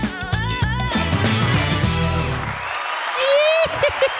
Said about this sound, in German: Da sind sie wieder, die Sodbrenner mit dem neuen Technikmischpult. und ich habe immer noch nicht genug davon, hier den Applaus-Button zu drücken.